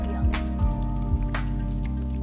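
Water sloshes and splashes in irregular surges in a blow-up pool simulating rough seas, with miniature floating wind turbines riding the waves, over a steady mechanical hum, moderately loud, with no voices.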